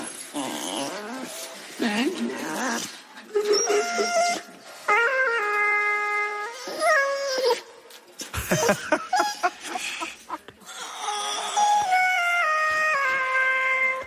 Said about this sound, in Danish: Så skal du høre Maggie, når hun synger. Altså hunden synger igennem autotune. Maggie.